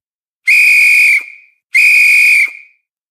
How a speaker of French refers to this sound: Le bruit d'un sifflet retentit soudain. Le départ C'était le signal du départ.